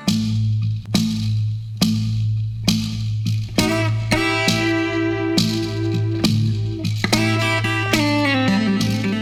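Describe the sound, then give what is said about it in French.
A nine-string guitar plays alone, fairly loud, with a small device wedged under the bass string that vibrates each time the string is plucked: sharp rhythmic plucked attacks roughly once a second over a steady, humming low drone, ringing with a slightly effected, echoey tone. “T'entends ça C'est de la guitare à 9 cordes.”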